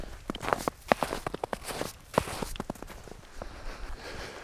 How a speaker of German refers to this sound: Ja, heute bin ich ein bisschen wandern bei uns im Wald. Es liegt im Wald noch ein bisschen Schnee, hört man vielleicht auch im Hintergrund.